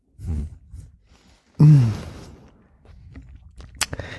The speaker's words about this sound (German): Zwei auf einmal. Wir samplen das Kauen.